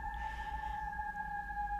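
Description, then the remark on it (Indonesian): A bird calls at night with a steady, unbroken high whistle that holds for the whole moment, set against a low background rumble with no one talking. “ini malam-malam kok masih ada burung bunyi ya”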